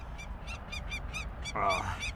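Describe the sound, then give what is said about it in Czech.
A female peregrine falcon gives a rapid, harsh alarm call, about eight loud, grating notes repeated in a steady rhythm, over a low background rumble, with no one talking. “Přiletá i sameček, ten se obvykle drží ve větší vzdálenosti a neozývá se tak hlasitě jako samice, která letos opravdu doráží velmi intenzivně.”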